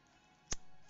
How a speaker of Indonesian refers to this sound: Wah, ini suara korek nih, Bang. Suara korek, suara korek.